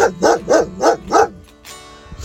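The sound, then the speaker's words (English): A dog named King barks four times in a quick, steady rhythm, loud, then falls quiet with only faint background noise. No one speaks. “His name is King with barking”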